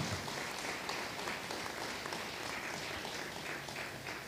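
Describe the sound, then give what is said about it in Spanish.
An audience applauds the Lord steadily, a dense, even wash of many hands clapping that holds at a constant moderate level for several seconds with no voices over it. “Un aplauso al Señor, ¿verdad?”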